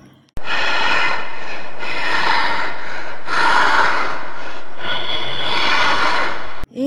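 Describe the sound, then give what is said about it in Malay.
A person snorts loudly and harshly, the noisy rasping breath swelling and easing in about four long waves over several seconds, with no talking. “DIA MENDENGUS”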